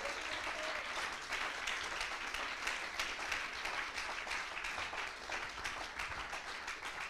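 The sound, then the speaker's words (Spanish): A church audience bursts into sustained applause for the Lord in a morning service, dense overlapping claps forming a steady, even roar that holds at the same level for several seconds without pause. “Denle un aplauso al Señor esta mañana, por favor.”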